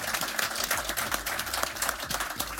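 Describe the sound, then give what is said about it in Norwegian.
An audience applauds steadily, a dense, continuous patter of many hands clapping at an even loudness with no voices over it. “Nå skal dere klappe.”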